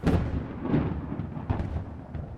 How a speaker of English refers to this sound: Yeah, it was God's voice, but but to them it was like this crazy, scary thunder and and you know whatever.